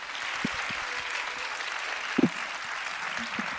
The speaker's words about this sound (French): Applaudissez nos invités. Ils n'ont ils ont pas démérité.